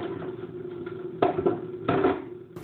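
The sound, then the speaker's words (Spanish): Dishes clatter softly as they are washed while there is no water, with two louder clanks of crockery standing out over a steady low background hum. Nobody speaks. “Yo acá lavando los platos, no hay agua”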